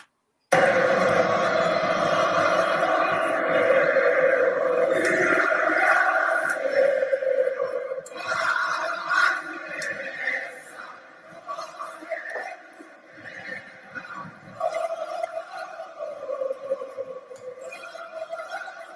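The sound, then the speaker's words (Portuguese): A large stadium crowd of fans sings together in a loud, sustained chant with rising and falling melodic swells, the massed voices blending into a continuous roar with no individual speech. “Assim, eu acho que como tá todo mundo morrendo de saudade de estádio, eu vou soltar a vinheta aqui com a, a torcida cantando para a gente encerrar.”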